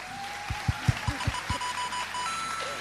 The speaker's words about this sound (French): c'est une pluie de buzz.